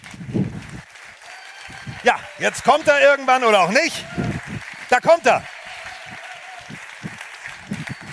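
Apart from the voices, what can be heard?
loud audience applause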